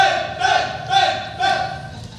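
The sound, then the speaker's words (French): A large crowd chants in loud, rhythmic surges, voices rising together roughly every half second amid a dense, wild cheering roar. “euh, vraiment clairement, on a une foule en délai pour toi.”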